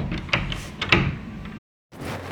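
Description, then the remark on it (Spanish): The door of an abandoned castle, on a rainy, thundery night, is rattled and jolted several times in quick succession, fairly loud, as someone tries to open it and it stays shut, then a short silence before more clattering. “Intenté abrir, pero no pude.”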